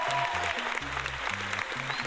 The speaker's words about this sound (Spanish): Y, eh, sí, aplausos a, los estudios XD de Disney.